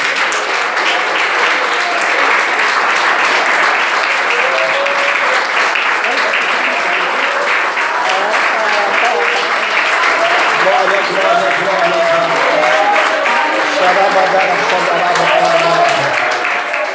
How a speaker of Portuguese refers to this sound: dar uma salva de palmas para Jesus?